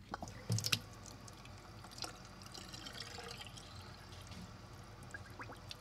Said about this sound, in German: Okay, also äh, der Moment der Wahrheit ist gekommen. Wir machen mal Wasser an.